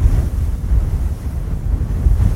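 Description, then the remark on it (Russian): Sea waves roll and break on the shore in a steady, loud, low rumble of surf, with a gusty wind buffeting the microphone throughout and no voices present. “Эх, море.”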